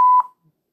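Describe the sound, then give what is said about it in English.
A single steady electronic beep tone, loud, held for about a fifth of a second before cutting off abruptly, like a censor bleep, followed by silence. “I was trying to find something funny on here, but I guess I'll just do that uh, the little beep thing. Makes it sound like I'm saying bad words.”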